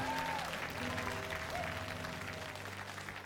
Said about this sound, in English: If you agree, give the Lord a clap offering.